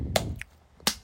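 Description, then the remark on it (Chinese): Someone slaps their own bare belly twice by hand. Each slap is a quick smacking thud with a bright crack on top, spaced about three-quarters of a second apart, with a faint tap between them and no talking. “我在 podcast 里面拍肚子”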